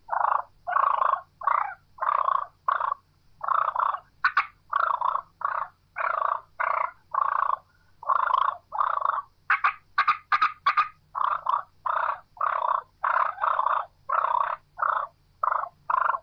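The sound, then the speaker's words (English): Rapid, rolling turkey purrs from two hens squared off in an aggressive squabble, a steady stream of loud, rattling bursts broken by a few sharp clicks, with no talking. “And then from there, we're going to go into fighting purrs, and that's when two hens have squaw- squared off, and they're in a squabble, and they're going to get nasty and loud.”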